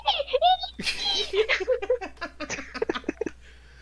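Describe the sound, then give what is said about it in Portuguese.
A person imitates a fox with a quick run of high, squeaky chirps and yips, fairly loud, broken into short bursts that edge into giggling. “Mas, tipo, então esse é o barulho que a raposa, que a raposa faz, mano?”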